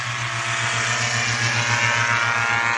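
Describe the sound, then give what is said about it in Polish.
A powered hang glider carrying two people, a pilot and a passenger, drones steadily overhead as it flies past, its small engine a loud, continuous buzzing hum with a low pulsing throb and a rushing noise, with no voices. “Właśnie przylatuje że... obok nas motolotnia, dla tych, którzy nie widzą.”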